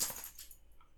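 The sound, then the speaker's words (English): A dog makes a brief, bright rattling jingle that fades within about half a second, leaving quiet low hum behind; no one talks. “that was my dog.”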